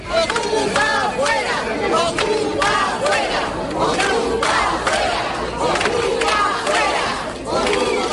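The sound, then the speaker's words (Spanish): Many neighbours gathered in front of a squatted house in a village chant the protest slogan "Ocupas fuera!" (squatters out) in loud, rhythmic bursts, many voices shouting together in repeated cycles with raised, strained pitch and steady overall loudness. “Esta mañana además pensaban que habían logrado echarles ya del pueblo porque muchos vecinos se concentraron este pasado lunes delante de la casa al grito de Ocupas fuera!”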